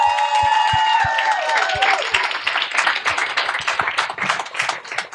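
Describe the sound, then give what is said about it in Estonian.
A crowd at a festival breaks into loud, sustained applause for the presenters at the close of the session, many hands clapping in a dense, steady patter. A few sustained musical tones ring out briefly at the start beneath it. “nii et teeme ühe lõpu suure aplausi ja siis head festivali nautimist.”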